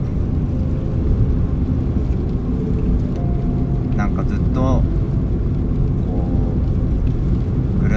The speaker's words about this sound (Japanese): 加速が遅いミライースいやさすが軽自動車